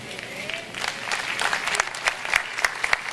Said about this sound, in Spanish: No, esos aplausos de conquistadores, no. No no es para mí.